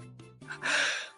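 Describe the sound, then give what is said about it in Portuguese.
A single sneeze: a short voiced intake of breath followed by a loud, explosive, hissing burst that fades out quickly. “Peraí, eu espirrar.”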